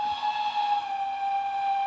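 A steam locomotive passing by blows its whistle in one long, steady note with a breathy hiss, holding the same pitch without a break. No one speaks.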